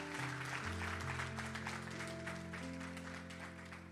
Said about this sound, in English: Come on, give the Lord a strong hand clap, hand clap if you're understanding this message.